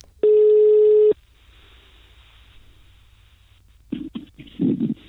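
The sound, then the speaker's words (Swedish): A single loud, steady telephone ringback tone sounds for about a second over a quiet line, followed by a pause before a voice briefly answers at the end; the call is placed to find out about eagle owls in the area. “Eh, så för att ta reda på lite hur det ligger till med berguven här kring så ringde jag upp mm.”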